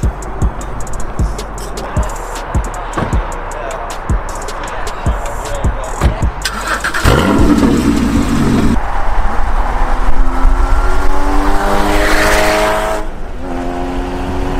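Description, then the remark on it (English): A sports car engine burbles with rapid pops, then roars loudly and revs up through rising tones as it pulls away, continuous with road noise underneath. “we just started up for the first time and it sounds incredible”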